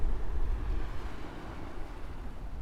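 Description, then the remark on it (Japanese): A steady, rushing roar of ocean waves on a beach, broad and continuous with a deep rumble underneath and some wind buffeting the microphone; no one speaks. “夏も海水浴はわお波の音が”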